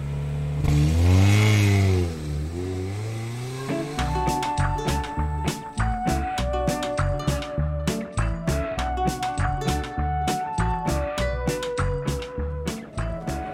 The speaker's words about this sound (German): Sie sprangen aus dem Fenster, knackten das Auto und fuhren los.